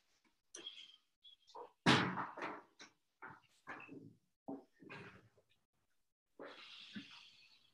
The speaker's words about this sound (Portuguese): Eh, deixa eu só fechar a porta aqui.